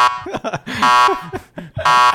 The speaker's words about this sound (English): I just want to do the buzzer.